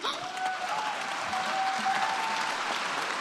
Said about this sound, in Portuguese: Os líderes mundiais aplaudiram o estudante